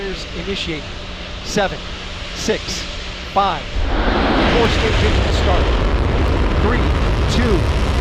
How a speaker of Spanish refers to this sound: boosters ignition, and liftoff of Artemis 1. We rise together back to the moon and beyond.